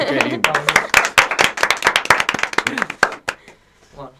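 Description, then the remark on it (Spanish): A small group claps for a band that has just played live on the radio, quick irregular hand claps over some overlapping voices and laughter, then the applause stops and a brief voice is heard alone. “Un aplauso.”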